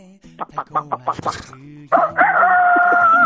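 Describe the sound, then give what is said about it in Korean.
A person imitates a chicken for a voice-impression quiz: a quick run of clucking syllables, then a loud, drawn-out crowing call, with no other talk. “예, 정답 닭입니다, 닭.”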